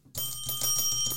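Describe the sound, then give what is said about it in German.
A service counter bell, a pass bell from a game, is struck several times in quick succession, its bright metallic tone ringing on and overlapping between taps. No one speaks. “Das ist die Passklingel.”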